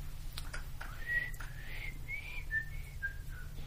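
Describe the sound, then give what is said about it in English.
A person whistles a short run of clear, wavering notes, five or six in quick succession, heard alone at moderate volume over a steady low background hum. “the only way you could whistle was to let go of the pain feeling, right?”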